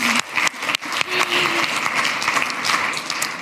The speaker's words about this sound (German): Danke für mein Creative Team. Ein Applaus.